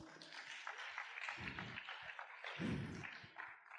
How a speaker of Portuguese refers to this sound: Muito bem, uma salva de palmas aqui para a nossa.